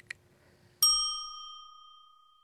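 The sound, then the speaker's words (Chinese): A single bright ding, like a small bell or chime, rings out once as a cue in a children's English question-and-answer game, lingering with a clear, slowly fading tone. A brief faint tap comes just before it. “小朋友们听到“叮”的声音后，请说出你的那一句。”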